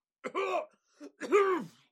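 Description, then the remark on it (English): A voice imitates a character coughing out gas and clearing its throat: two harsh, raspy bursts separated by a short grunt, fairly loud, with no speech. “As he coughs, this gas is going to fan over to you three and get all three of you.”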